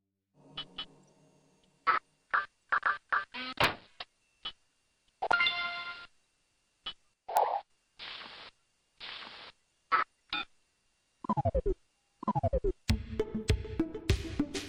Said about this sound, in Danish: Seneste lyd er Microsoft Office Assistant